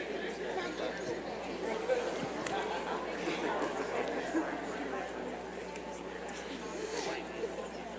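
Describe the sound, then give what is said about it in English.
A church audience murmuring in low, overlapping conversations in pairs, sharing with the person around them things they love; a steady soft babble of many voices talking quietly, with no single voice standing out. “Share with the person around you some of the things that you love. I want some noise, talk.”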